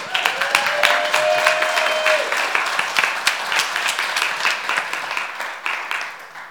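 An audience applauds steadily to welcome a speaker, dense overlapping claps at a fairly loud level, with a brief whistle near the start, then the clapping gradually thins and fades slightly.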